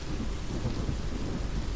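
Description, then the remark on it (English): Heavy rain pours down in a dense, unbroken roar, steady and loud throughout, with a deep rumbling undertone beneath the hiss and no voices. “With all this rain, though, it's dark and people are going so fast as if conditions are perfect.”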